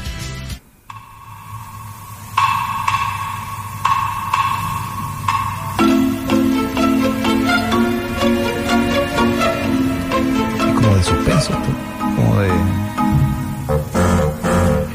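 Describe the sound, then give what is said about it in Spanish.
Instrumental film score music with sustained, resonant tones that build in layers, a steady pulsing texture joining partway through, playing alone at moderate volume with no voices. “Eh, esta, esta es una linda canción que creo que escuché, la, sexta.”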